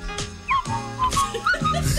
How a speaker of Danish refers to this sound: jeg kan simpelthen ikke holde fløjten ud, og jeg kan ikke fløjte selv.